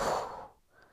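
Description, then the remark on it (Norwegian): A soft, breathy exhale during a breathing exercise pushes out steadily and then fades away about halfway through, leaving near-quiet. No one speaks. “Og pust ut.”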